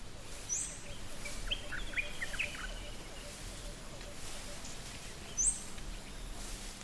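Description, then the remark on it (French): Quiet outdoor ambience in a forest during a silent walk, with a few scattered bird chirps and a brief warbling phrase over a soft, steady background hush. “où on commence à, à ressentir, à ressentir l'air, à sentir les odeurs, à écouter les bruits, les oiseaux.”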